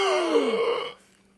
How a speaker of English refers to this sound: And then Captain Hornbolt sees something and gasps in astonishment.